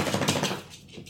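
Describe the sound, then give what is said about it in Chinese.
A family's pet dog shakes itself off, a quick rapid flapping rattle of ears and fur lasting under a second, then fading out into quiet. No one speaks. “不好意思，我们家狗在抖。”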